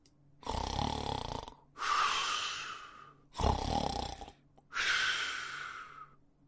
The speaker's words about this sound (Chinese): 兔爸爸肚子一起一伏，打着小呼噜睡着了。